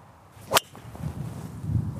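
A single sharp crack of a golf driver striking the ball on a shot aimed directly at the green into a headwind, a quick bright snap over a low rumble of wind, followed by quiet background noise.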